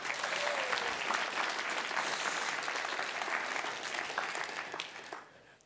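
An audience in Visjon Norge's premises, Studio 28, in Oslo, claps for Visjon Norge and Jan Hanvold steadily for about five seconds, a dense patter of many hands with a few brighter individual claps standing out, before the applause thins and fades away.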